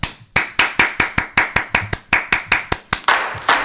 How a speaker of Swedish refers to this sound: Kan jag få en liten applåd